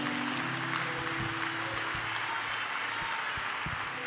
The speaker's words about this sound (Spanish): Alguien le da un aplauso al Espíritu Santo de Dios.